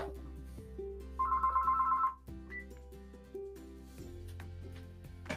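A telephone rings once in a short, warbling burst lasting about a second, fairly prominent over a steady backdrop of low, music-like tones.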